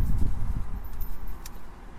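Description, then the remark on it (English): Steady low rumble of highway traffic about 100 yards away, heard from a local park on a breezy day: a continuous wash of engine and tire noise with a brief faint click partway through; nobody speaks. “And there's traffic uh, about 100 yards behind me on the highway.”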